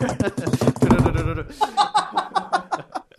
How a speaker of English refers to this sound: Yeah, while knocking a wood, by the way. just, just, to be clear.